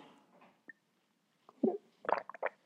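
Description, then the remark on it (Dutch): Someone sips tea: a soft rustle and a small click, then a few quick wet slurping and swallowing sounds in short bursts, moderately loud, with no talking. “Even een slokje thee nemen.”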